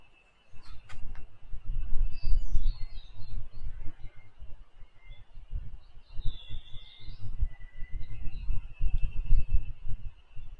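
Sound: cicadas singing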